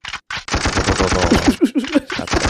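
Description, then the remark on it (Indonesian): Rapid bursts of automatic gunfire, a sound-effect style machine-gun rattle played from a new sound-effect device, firing in quick repeated volleys, loud, with no talking over it. “Ada alat baru yang bisa bikin macam-macam, misalnya suara tembak.”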